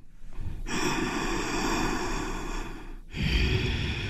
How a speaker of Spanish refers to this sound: Pero es respiración. Ahorita estamos haciendo respiración